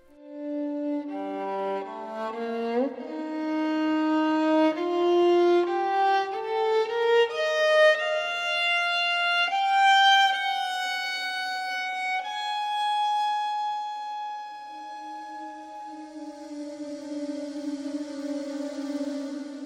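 A violin plays sustained notes that climb step by step, then settles into long held low tones while a hazy, hissing electronic texture gathers high above. No voices.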